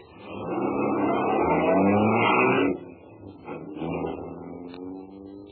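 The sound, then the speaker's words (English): A car engine revs up loudly, its pitch climbing for a few seconds, then eases off and pulls away with a lower, rougher rumble as the vehicle drives off. “I yanked the bill out of my pocket, tossed it to the boy, and was in my car and nothing flat.”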